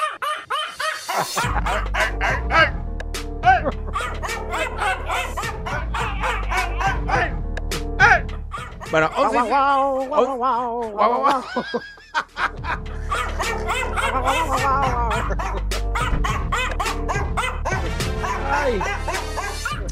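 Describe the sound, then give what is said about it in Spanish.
New Guinea singing dogs howl together in loud, overlapping, warbling wails with sliding pitches and a few yips, going nearly nonstop with a brief lull midway. “¿A que no sabías que existían los perros cantores de Nueva Guinea?”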